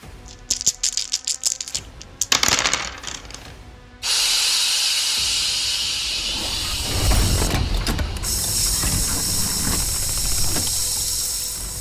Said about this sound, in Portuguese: você vê todo o mecanismo dele começando a acelerar, ele tá saindo vapor dele quando ele começa a correr na direção do bicho.